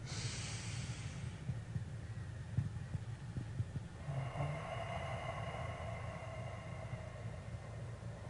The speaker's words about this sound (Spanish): Ah, durante el día, toma momentos durante el día solo para respirar porque cada respiración es un descanso para el cuerpo y para la mente. So, durante el día, toma un momento solo para hacer esto.